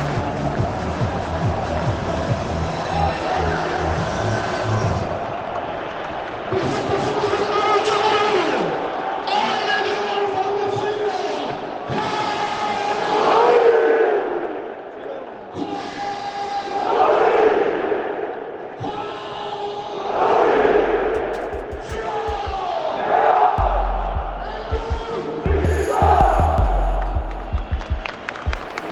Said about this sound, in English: Uh, lots of energy. The crowd is into it, um, blowing whistles at every stage of this.